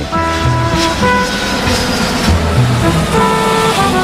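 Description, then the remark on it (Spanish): An airport shuttle train at Adolfo Suárez Madrid-Barajas Airport, travelling on the internal circuit to the satellite terminal, glides along with a steady mechanical hum and rumble, layered with sustained tonal whines and chime-like tones that rise and fall throughout, with no voices. “Viaje en circuito interior hacia la terminal satélite.”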